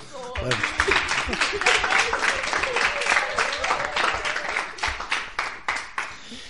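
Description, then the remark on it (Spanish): A group of people rehearse a round of applause: a dense burst of steady clapping that holds for several seconds before tapering off, with a few voices calling out beneath it. “venga vale vamos a ensayar ese cuarto aplauso va”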